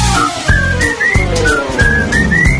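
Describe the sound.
A bright, high whistled melody of short gliding notes plays over a steady instrumental backing with regular beats, the whistle rising in pitch toward the end.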